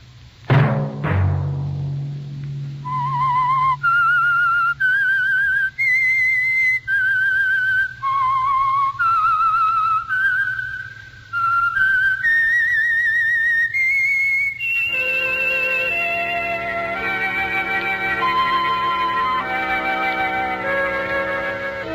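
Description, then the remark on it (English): The whistled theme of the Signal Oil radio program The Whistler: a lone whistled melody rises and falls in clear sustained notes over a low drone, then gives way to a full orchestral swell with fuller harmonies. No voices are heard. “Let that whistle be your signal for the Signal Oil program, The Whistler each Sunday night at the same time.”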